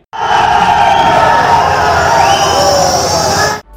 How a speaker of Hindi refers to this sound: आप जानना चाहते हैं उस सीन में ऑडियंस का रिएक्शन कैसा था तो आप सुनिए